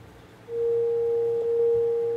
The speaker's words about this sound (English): I'm gonna turn my uh, little encoder knob here and you'll see my synth changing back there.